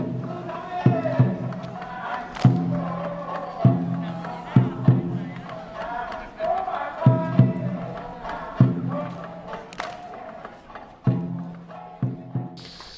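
A festival crowd at the festival venue murmurs steadily with many overlapping voices, while loud thuds strike at irregular intervals of roughly a second or two across the noisy background.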